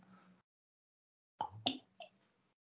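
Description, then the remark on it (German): Quiet drinking sounds: a soft rustle, a pause, then a quick cluster of three wet gulps and lip smacks as people sip and swallow beer after a toast. No one speaks. “Ja, eine kleine Trinkpause.”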